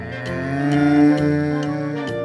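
A cow lets out a long, steady low moo lasting a couple of seconds, loud, with faint regular clicking ticks underneath.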